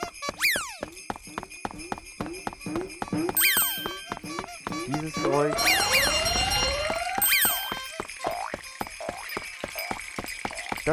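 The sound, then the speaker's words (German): Video game sound effects of elves bouncing in a toy-collecting game: a fast, steady stream of springy boings and chirpy sweeps over a bright, tinkling chime-like backdrop, loud, with no talking. “sind die Elfen, die ihr bouncen hört.”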